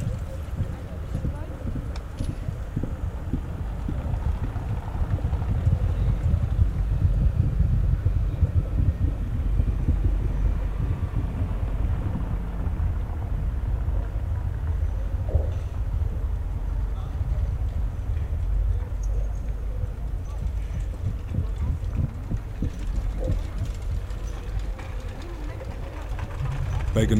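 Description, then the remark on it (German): A deep, muffled rumble of ground vibration picked up by a vibration-sensitive microphone, with passing cars and bicycles swelling and fading and faint irregular thuds of footsteps and wheels within several metres, steady and dull throughout. “Es registriert vorbeifahrende Autos, Fahrräder und Schritte im Umkreis mehrerer Meter.”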